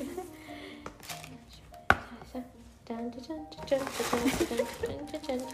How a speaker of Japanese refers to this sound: トム・フォードの袋をいただきましてちょっと開けてみたいと思います、はい、うるさすぎたらガサガサゴソするかもしれない